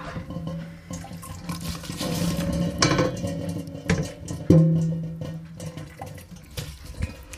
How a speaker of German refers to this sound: Dann die Schaumkelle und oder den Kochlöffel und nach und nach wird das dann in das Sieb gegeben.